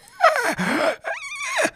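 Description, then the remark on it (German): A voice imitates a strangled, failed scream, like trying to scream for help in a nightmare with nothing coming out: two strained, breathy gasping bursts, each wavering in pitch with a hoarse, choked quality, separated by a short catch of breath. “Ich habe den Mund aufgemacht und wollte Hilfe schreien und es kam nichts raus.”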